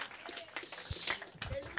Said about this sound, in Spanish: oh, alguien, déle un minuto de aplauso.